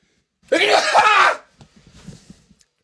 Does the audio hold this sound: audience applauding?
no